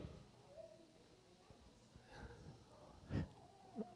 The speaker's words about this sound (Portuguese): Deep breath, uma respiração profunda. Falo, Senhor, obrigado, Pai, porque posso respirar profundo.